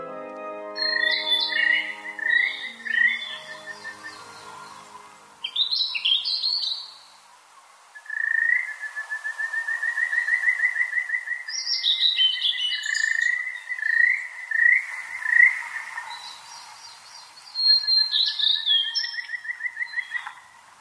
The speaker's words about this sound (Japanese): 栃木県奥日光中禅寺湖のほとりです水ならの梢でさえずるオオルリと湖の岸辺で鳴くカジカガエルの声が聞こえてきました